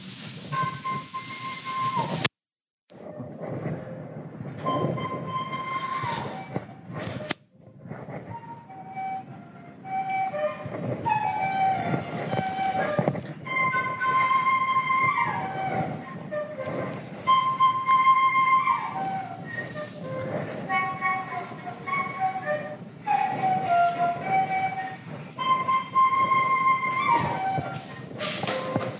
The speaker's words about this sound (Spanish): Esto era una transcripción de una melodía, vamos a escucharla, pues les voy a poner la grabación de campo eh, a un chamán que se la grabamos.